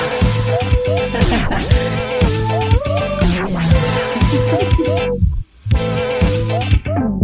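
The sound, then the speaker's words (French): A short, upbeat instrumental theme jingle with a steady thumping bass beat and bright melodic lines, played loud, briefly cutting out near the end before resuming. No one speaks. “Voilà, écoutons ce petit générique détendant avant de s'atteler à cet arrêt du tabac.”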